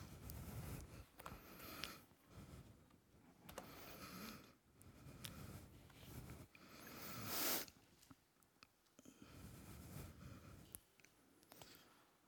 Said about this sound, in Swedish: Jag tänkte vi ska börja eh, och läsa från Hebreerbrevet 10 och 35 39. Och vi hör bläddrandet.